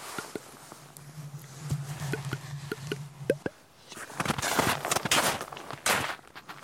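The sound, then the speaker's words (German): Slow, careful footsteps crunch over forest ground as two people climb carefully, taking a few steps, standing still and listening, then a louder burst of rustling and scuffing as they move on. No one speaks. “Ein paar Schritte gehen, stillstehen, horchen.”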